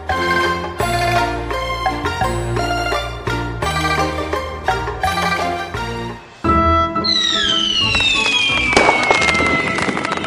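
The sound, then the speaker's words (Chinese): Fireworks set off at night to celebrate the Mid-Autumn Festival go off after several seconds of bright melodic music: a loud whistling shriek slides steadily downward, mixed with sustained crackling bursts that continue to the end. “快看，有人在放烟花，璀璨的烟花接连绽放，绚丽的色彩照亮了整片夜空。”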